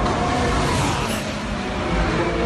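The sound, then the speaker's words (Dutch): Loud, continuous roar of Formula 1 racing car engines at the Grand Prix of Portugal in the Algarve, a dense, steady wall of engine noise that holds its intensity throughout, with no one talking over it. “Het geluid van die prachtige ronkende motoren.”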